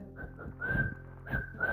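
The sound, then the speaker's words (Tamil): Whistling from a film scene set in Mumbai, where three characters whistle as they talk. Someone whistles a steady, held tune in a few sustained notes over a low rumbling background, moderately quiet. “அப்படி சொல்லி வந்து விசில் அடிச்சுட்டே பேசிப்பாங்க மூணு பேரும் அது நல்லா இருக்கும்”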